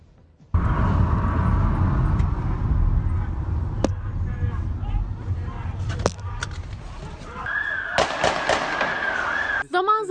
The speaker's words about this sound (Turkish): silah sesleri yükseldi sokaklardan. Sokağa çıkma yasağını delenler polisle karşı karşıya geldi. Bazı yerlerde dakikalarca süren kovalamaca, bazı yerlerde ise silahlı çatışma vardı. Arabadan da sıkıyorlar şuradan.